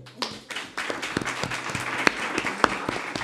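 A burst of audience applause for two people, a dense wash of many hands clapping at once with a few sharper individual claps standing out. No one speaks over it.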